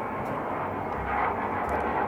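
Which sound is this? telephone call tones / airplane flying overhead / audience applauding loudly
airplane flying overhead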